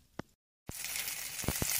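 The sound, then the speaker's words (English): Three bratwursts sizzle and crackle in a frying pan as they are cooked for a dog, Phoebe, a steady bright hiss with scattered sharp pops. It starts abruptly after a brief silent gap and stays fairly loud, with no talking. “You hear that? That's right! I'm cooking meat for my dog!”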